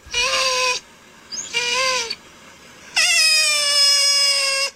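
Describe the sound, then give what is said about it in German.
An otter, whose fur is being combed, gives three loud, high squealing calls: two short ones, then a longer drawn-out cry. Each is a bright, steady whine with a slight downward bend, separated by brief quiet gaps. “mein Otter, ja. also mein Krafttier, das schwebt ja immer so über uns.”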